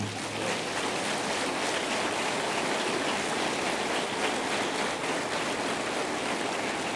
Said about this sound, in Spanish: Yo quiero que le den otro aplauso al Señor.